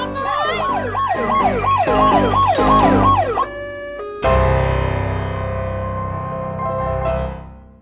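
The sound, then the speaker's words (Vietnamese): A loud ambulance siren wails in quick, repeating rising-and-falling sweeps, then switches to a steadier sustained tone before fading out at the end. No one speaks. “rồi gọi cấp cứu ngay”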